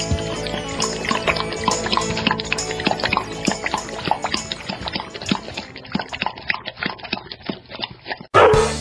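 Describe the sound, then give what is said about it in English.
A dog laps water in quick, steady wet slurps that run continuously for several seconds before cutting off abruptly, followed by a brief different noise. “We'll be right back to Win with Dogs right after this quick water break.”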